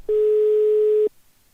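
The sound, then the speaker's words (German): A single steady telephone ringing tone sounds for about a second, loud, a pure electronic beep that cuts off abruptly, followed by near silence; a phone call to a polar research station 14,000 km from Bremerhaven, placed via a number with a Bremerhaven area code. “Wohl aber ein Telefonanruf über eine Nummer mit Bremerhavener Vorwahl.”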